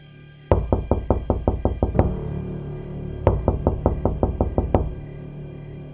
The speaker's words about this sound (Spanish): Justamente ella estaba terminando de contarme todo esto cuando tocaron a la puerta.